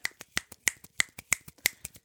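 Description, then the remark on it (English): A quick series of crisp finger snaps, about a dozen sharp clicks in a steady, brisk rhythm lasting two seconds, clear with no voices. “clap or what is that not clapping snapping snapping”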